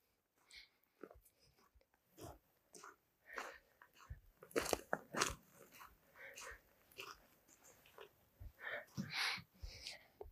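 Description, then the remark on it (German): A person trudges through snow, footsteps crunching in a steady, slightly uneven walking rhythm, each step a crisp crackle, with no talking over them. “Und ich lasse jetzt mal eine kurze Pause du kannst mir hier beim durch Schnee stapfen zuhören.”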